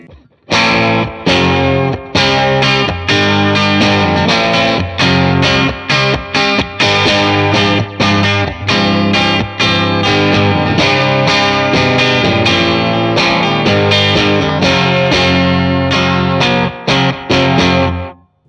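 An electric guitar riff played through a Voodoo 1 overdrive pedal: loud, crunchy chords struck in a steady, choppy rhythm with sharp repeated accents for about eighteen seconds, and no voices.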